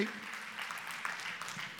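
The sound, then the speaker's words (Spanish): An audience claps steadily, giving applause to the Lord, a dense wash of many hands applauding at once, sustained and fairly even in loudness with no speech over it. “Si suplió, tú puedes darle un aplauso al Señor si suplió.”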